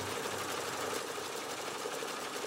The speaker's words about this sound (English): MIT's archives held the Simulmatics punch cards, but MIT couldn't read them. So they ended up shipping the cards for me to the Computer History Museum, where Carl ran them through his ancient machine.